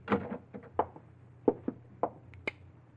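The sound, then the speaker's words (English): A key scrapes and clicks in the lock of an office door, with a handful of sharp metallic clicks and rattles at uneven intervals over a quiet background. “and then suddenly you wheel around in your chair stiffen as you hear the key in the lock of the office door.”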